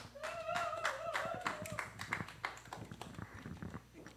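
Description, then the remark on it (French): A church audience at the Promised Land stands and applauds to acclaim the Lord for the life of their pastor, a steady stream of sharp, overlapping claps, with voices briefly raised over the clapping near the start before the applause carries on alone at a moderate level. “Et nous allons, euh, pour cela, nous lever et commencer à acclamer le Seigneur pour la vie de notre pasteur, euh, de notre prophète, de notre père ici à la Promised Land,”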